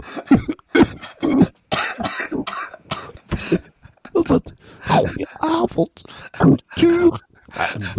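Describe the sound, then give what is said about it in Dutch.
A person who cannot talk coughs repeatedly, a series of rough, loud bursts spread across several seconds, with throaty vocal sounds and brief pauses between the coughs. “Ik hoest naar Rotterdam.”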